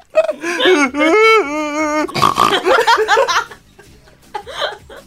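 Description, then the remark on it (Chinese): A person trying to make a snot-sniffing sound for fake crying sniffs hard through the nose, producing a loud, high, squealing pig-like sound, followed by rough snorting sniffs and a few short laughing bursts. “哎，怎么吸出猪叫声？”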